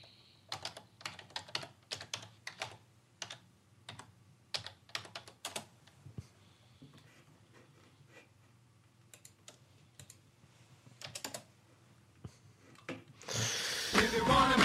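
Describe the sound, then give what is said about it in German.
Brisk typing on a computer keyboard as a web address is entered, rapid clicking keystrokes in bursts with a short lull midway, followed at the end by a sudden loud wash of noise. “Hast du lemonparty.org schon eingegeben? Nein, noch nicht. Mach das mal.”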